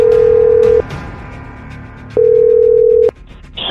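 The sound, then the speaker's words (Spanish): A steady electronic telephone ring tone sounds in two long bursts separated by a pause, over a faint background hum, followed by a short higher-pitched beep at the end, as a phone number is dialed to place a call. “Es todo lo que necesito, vamos a marcarlo, ¿ok?”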